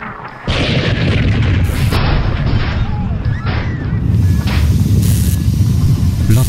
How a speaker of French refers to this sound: explosion qui ruina le compresseur dimensionnel du vaisseau de l'Exode et la violente secousse qui suivit furent accompagnées de plusieurs ruptures de canalisation et d'une surchauffe des calculateurs.